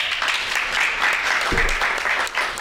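An audience breaks into steady, dense applause, a continuous wash of many hands clapping at close range that holds for a few seconds without any speech over it.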